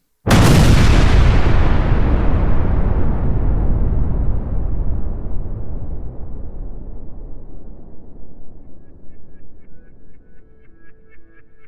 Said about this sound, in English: The sound of an explosion.